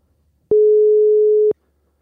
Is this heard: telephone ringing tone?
yes